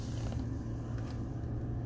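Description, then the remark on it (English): Aluminum rowboats on a lake creak and groan against a dock over a steady low rumble, a continuous grinding with faint scrapes and no voices. “The creak of the boats, the aluminum boats against the dock”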